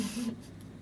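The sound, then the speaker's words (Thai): A steady air conditioner hiss with a low droning hum, fairly quiet. The airy rush is stronger at first, then settles into a softer background whir. No one speaks. “เออ แอร์มันดังจริงด้วยจริงเพราะใส่หูฟังนะชัดเจนมากเลย ต้องลบน้อยออกไป”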